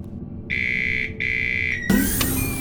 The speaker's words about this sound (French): J'ai essayé la sonnette, mais je pense qu'il faudrait que vous la fassiez réparer.